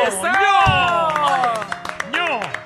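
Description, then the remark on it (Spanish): Scattered hand clapping from a small group rises under loud, excited shouting voices, the claps sharp and close, continuing through most of the short burst. “¡Un aplauso!”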